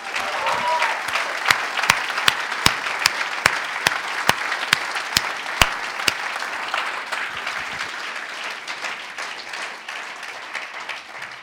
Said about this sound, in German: Ich glaube, wir sollten mal diesen Musikern, ihnen, aber auch den anderen, mal noch einen fetten herzlichen Applaus geben.